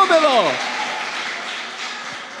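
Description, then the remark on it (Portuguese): An audience applauds Jesus and gives a shout of jubilation, a loud falling shout at the start giving way to a steady wash of clapping and crowd noise that continues without pause. “Pode levantar a mão para o céu, aplaudir a Jesus e dar um brado de júbilo.”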